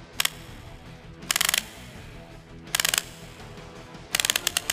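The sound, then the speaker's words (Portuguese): A winding key being turned to start a battered, dented robot called Sucata: short bursts of rapid, crisp ratcheting clicks come in about four spurts with pauses between, over a low, steady hum. “Você se aproxima e começa a girar a chave dele.”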